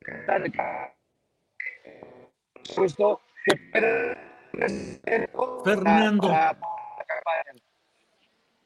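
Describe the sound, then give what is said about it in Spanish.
A man's voice comes over a phone-in line thick with interference, crackling and breaking up into choppy bursts with brief dropouts between phrases. “Fernando se escucha con mucha interferencia”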